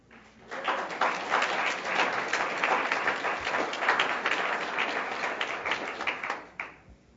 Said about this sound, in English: Let's give our career panel a big round of applause.